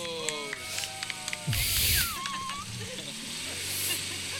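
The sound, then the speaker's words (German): A motorcycle engine sputters and catches with a sudden burst of rumble and hiss, sounding thin as it is played back from a video on a small device held up to a microphone, with faint voices around it. “du hast das Video auch gesehen, es war ja. mein Motorrad, was ja. angesprungen ist”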